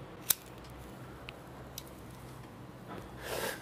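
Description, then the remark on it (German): A cigarette being lit: one sharp lighter click, a couple of faint ticks, then a soft rising hiss at the end. No one speaks, and the quiet background sits under it. “Das war jetzt die Kunstpause, für die Zigarette anzuzünden.”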